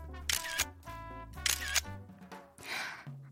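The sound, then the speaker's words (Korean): Two crisp bursts of camera shutter clicks, about a second apart, as photos are retaken of a day's food, over steady tonal background music, with no one talking. “요거는 이쪽으로 빼놓고, 어, 다시 찍어야지.”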